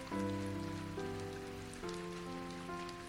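Steady rain patters as a continuous soft hiss beneath gentle sustained musical chords that shift a few times; no one speaks.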